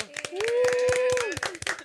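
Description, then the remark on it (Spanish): A small group claps in quick, uneven bursts, fairly loud, to welcome a guest, while someone holds a long rising whoop over the applause for about a second. “Creo que sí, vamos a recibirlo con un fuerte aplauso.”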